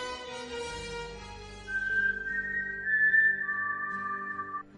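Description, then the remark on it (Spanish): A clear, bright whistled melody of four notes rings out after a brief swell of music, the tones held and steady, loud with no talking. “Nos agarraron en el mero merequetengue porque cada vez que suena el silbido del cinzajo”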